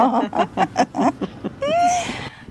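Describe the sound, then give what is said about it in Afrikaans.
A hadeda ibis gives a harsh, drawn-out call, heard after a burst of rhythmic, laugh-like sounds. The cry rings out clearly for about half a second, then fades. “lekker roep daai Hadi da daar in die agtergrond.”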